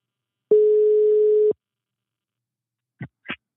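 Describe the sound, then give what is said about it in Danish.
A single steady telephone ringback tone sounds for about a second while a call goes through to a quiz contestant on Zealand, Denmark, followed after a pause by two short clicks like the line being picked up. “Jamen, øh, vi ringer til”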